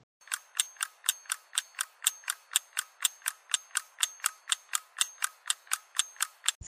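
An old pendulum wall clock in a living room ticks steadily, crisp evenly spaced clicks at roughly three per second, clear with no voices or other sounds around them.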